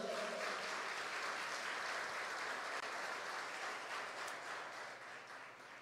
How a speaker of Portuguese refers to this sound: Você pode aplaudir a palavra do Senhor aí?